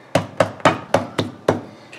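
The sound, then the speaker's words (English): A meat mallet pounds thinly cut sirloin steak, making it thinner before it goes into a marinade, in a quick, steady run of five loud, sharp thuds, then a softer sixth blow. There is no talking. “All right, so we're gonna just pound out a, a couple of them and then put them in the marinade.”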